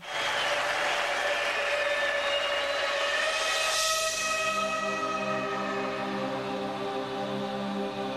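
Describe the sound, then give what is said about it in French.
The church bells of Lyon ring together in a dense, sustained wash of overlapping metallic tones, steady and loud throughout, over a constant noisy roar like a large cheering crowd. “Les cloches de la ville sonnent.”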